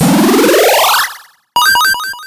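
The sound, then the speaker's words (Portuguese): A loud synthetic game-start effect: a rising, swelling tone sweeps upward and cuts off, then after a short pause a bright, rapid cascade of electronic chime notes rings out, with no voices. “Quero um barulho de jogo agora iniciando.”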